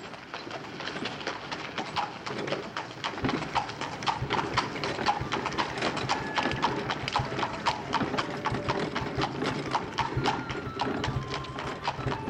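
Hooves clip-clop in a steady, regular rhythm as a horse-drawn wagon rumbles down the path into the village, its low wheel rumble continuous underneath. Birds chirp faintly in the background; no one speaks.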